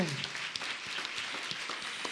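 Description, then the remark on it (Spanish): Steady applause from the audience at a special live concert for Radio en Vivo, recorded as part of the concert. A dense wash of many hands clapping at an even level throughout, with a few sharper individual claps standing out and no voices. “Y con este aplauso que también se está grabando como parte de este concierto muy especial, les queremos nada más dar pie para continuar con la música,”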